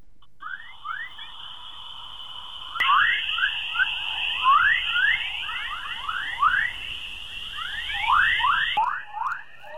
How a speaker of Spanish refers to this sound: Así suena la Tierra, nuestro planeta, nuestro hogar. Esta es una grabación hecha por la Administración Nacional de Aeronáutica y el Espacio, la NASA. Este fenómeno se conoce como el canto o el coro y fue captado por dos sondas de la NASA